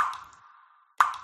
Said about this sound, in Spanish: Una ducha perdiendo agua suena así.